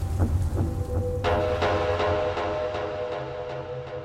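Steady, dense rain hisses throughout a thunderstorm, with a low, continuous rumble underneath and scattered sharper splashes and patters breaking through. No voices are heard.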